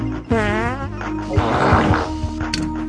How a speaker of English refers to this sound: It's just toilet humor. And that's basically what my show is. I'm always playing farts.